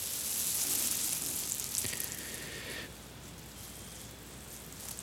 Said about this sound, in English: This is much more like AS, uh, more like white white noise.